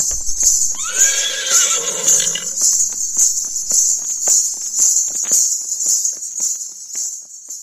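A horse gives a single loud whinny lasting about two seconds, its pitch rising and falling, over a steady shrill drone of insects that continues alone, with faint rustling or hoof sounds afterward.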